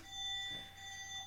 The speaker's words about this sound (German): Das Ist unser Telefon, was klingelt? Wir lassen das jetzt einfach klingeln im Hintergrund.